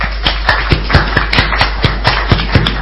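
Brief applause: about a dozen sharp, crisp hand claps in a steady, even rhythm, moderately loud, with no voices over them.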